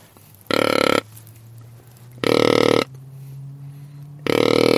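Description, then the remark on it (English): Three loud, deep buck grunts blown on a deer grunt call with a hand cupped over its end to make them louder and longer, each about half a second long and evenly spaced, with a low resonant, burp-like tone and no talking. “And if I cup my hand on the end of my grunt call to make the grunt sound loud, longer, this is really deep.”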